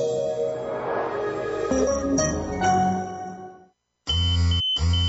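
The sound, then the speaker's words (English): Two loud, steady electronic pager beeps sound close together after a brief silence, following a busy tonal electronic sound. “Wait, is that your pager?”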